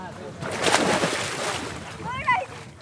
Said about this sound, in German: Zwischen riesigen Felsen am Ufer ist ein Holzsteg, von dem die Kinder ins Wasser springen.